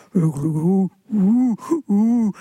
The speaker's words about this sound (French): j'avais presque quatre heures de, de, de sons de baleine, et même on, entend rire. Et c'est toujours la baleine qui rit.